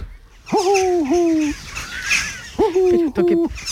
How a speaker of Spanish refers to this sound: Ah, y, eso, y, eso, hace un ruido y eso hace. Uy, la bubilla, parece un gremlin de esto.